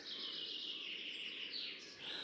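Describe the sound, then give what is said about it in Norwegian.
Continuous birdsong with several birds chirping and trilling together in high, bright tones, a steady chorus heard alone without voices, fairly faint. “Jeg elsker å våkne til fuglesang.”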